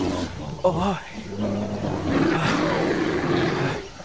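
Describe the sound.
A lion that has stepped on a thorn lets out a long, rough, anguished roar of pain that swells and holds for several seconds, loud, with a short voiced growl leading into it.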